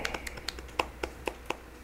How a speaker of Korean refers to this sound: 저희 박수 치면서 한번 보내드리겠습니다. 감사합니다.